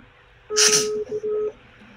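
An outgoing WhatsApp call's ringing tone: a steady electronic beep, about a second long with two brief breaks, begins with a burst of hiss and rings clearly over faint background murmur.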